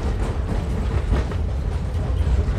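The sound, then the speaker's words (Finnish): A train sways as it rolls steadily along with heavy low rumble, its wheels knocking rapidly over the rail joints beneath in a rhythmic clatter, fairly loud, with no voices. “No, se kokemus tulee siitä, kun se alkaa oikein heilumaan, niin jalkaa kiskon jatket kolkkaamaan taajaan siellä alla, niin sitten tulee semmoinen illuusio, että tämä menee lujaa tämä juna tässä.”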